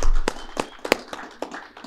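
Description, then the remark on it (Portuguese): A handful of scattered hand claps, about six sharp slaps at uneven intervals, moderately loud, like a small group briefly applauding to welcome an arriving guest, with no voices. “uma salva de palmas para ele!”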